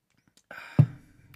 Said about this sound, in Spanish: Aquí tengo una tacita de café. Aprovecho si andan cenando, que ya es tarde son. Pero le voy a dar un traguito.